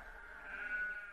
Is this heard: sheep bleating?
yes